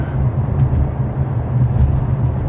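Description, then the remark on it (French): Steady low rumble of a car driving from the south shore toward Montréal around 6 a.m. in light traffic, heard from inside the cabin, with a constant engine drone and tire noise filling the background without any talking. “c'est là qu'on voit que c'est les heures idéales pour traverser pour venir à Montréal.”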